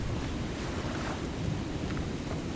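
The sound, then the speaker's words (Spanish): A steady, roaring wash of wind and churning waves at sea, loud and unbroken throughout, with a heavy low rumble and no voices. “La tormenta se ha liberado por sí misma.”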